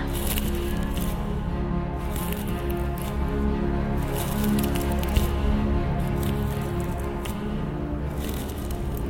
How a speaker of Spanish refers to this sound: ¿Sentiste? Alguien abrió la puerta de la casa. Escucha esos pasos